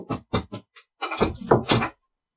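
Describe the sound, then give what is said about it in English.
A few quick thuds, then a longer creaking, rasping sweep that ends abruptly, like a door swinging shut. Nobody speaks. “And close the door.”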